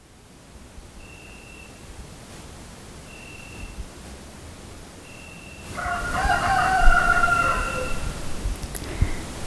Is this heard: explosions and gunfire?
no